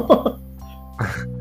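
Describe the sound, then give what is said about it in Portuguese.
A short sneeze bursts out after a brief throaty vocal sound, over a steady low electrical hum. “Todo mundo já tem essa fase, saúde.”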